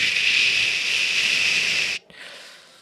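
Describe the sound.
A voice imitates the hiss of an open pipe sticking out of the ground in a warehouse corner, with a loud, steady, high-pitched hiss held for about two seconds, then cut off, followed by a fainter, softer trailing hiss.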